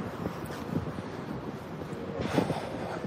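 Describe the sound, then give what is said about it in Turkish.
Steady wind buffets an outdoor microphone, a broad low rumble with gusty surges, the strongest swelling near the end of the short clip; no one speaks. “Ayağda bir rüzgar var ama olduğu kadarıyla.”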